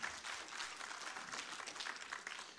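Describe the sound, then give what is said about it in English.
An audience at a church service applauds the Lord steadily, a dense, sustained patter of many hands clapping at an even level throughout, with no voices standing out. “Applaud the Lord.”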